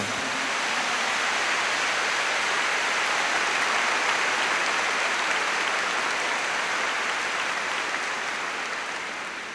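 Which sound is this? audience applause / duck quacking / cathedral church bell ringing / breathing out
audience applause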